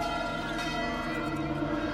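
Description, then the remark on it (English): City alarm bells ring steadily through the city for the whole stretch, their overlapping tones blending into a dense, sustained clangor at moderate volume with no voices present. “They catch their breath and hear the bells ringing through the city, forces arming themselves and heading to the walls.”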